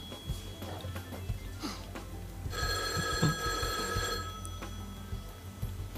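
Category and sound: household object, telephone ringing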